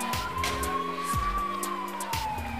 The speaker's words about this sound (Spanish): Luego llegan luces blancas y azules, enmarcadas por sirenas, estridentes sirenas.